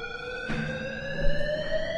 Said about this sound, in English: You hear the siren. You, you, you know what time it is. You know what time it is. That siren, for those of you that are new, means that you're being warned.